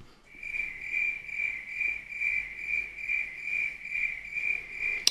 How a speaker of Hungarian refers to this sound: Jó, túl hosszú volt. Ennyit azért nem akartam. Ez annyira szarul indokolt volt a dupla tücsök. Még a tücsök is.